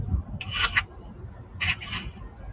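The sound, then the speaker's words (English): Chewing of a mouthful of a rye bread sandwich with mayo, tomatoes, lettuce, onions, mustard, cheese and turkey: two short, crunchy, moist bursts about a second apart over a low background rumble, with no talking. “Yeah, it sounded like a sandwich. Like your face was full of sandwich.”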